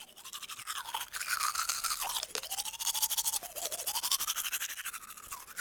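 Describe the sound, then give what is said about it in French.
Steady toothbrush scrubbing against teeth, a wet, scratchy bristle sound with quick back-and-forth strokes that continue without pause, with no talking. “Alors, tout d'abord, qui dit prendre soin de ses dents dit généralement brosse à dents.”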